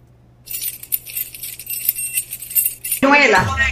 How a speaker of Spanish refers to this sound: ¿Qué tú crees que son? Baja un llavero, como si fuera un llavero